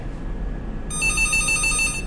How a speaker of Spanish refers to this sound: ¿Queréis seguir escuchando el teléfono góndola? la verdad que, que Sigue, estando en marcha, ¿eh?